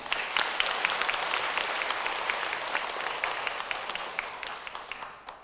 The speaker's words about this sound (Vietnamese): nếu quý vị chấp nhận được điều này thể dâng cho một tràng vỗ tay